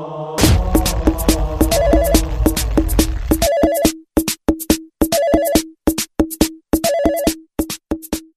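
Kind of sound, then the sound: signal or alarm, cell phone ringtone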